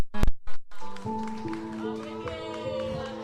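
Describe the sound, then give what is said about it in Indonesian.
A few sharp thumps give way to a steady burst of applause for three guests at a Ngarit Motorcycle community event, dense clapping that carries on for about two seconds with voices cheering over it. “tepuk tangan dulu dong buat ketiganya”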